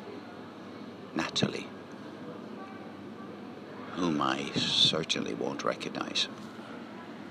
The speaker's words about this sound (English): So, this is the sound of the centre of Cork City, oh.